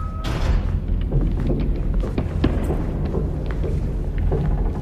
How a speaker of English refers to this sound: We ran toward it and pulled it open and went inside. When the door fell closed behind us, it was pitch dark except for the little gray light coming in from the space held by the sandbag.